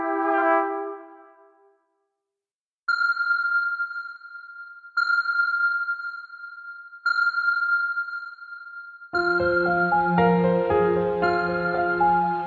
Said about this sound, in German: Echolot, Schallwellen aus Eckernförde.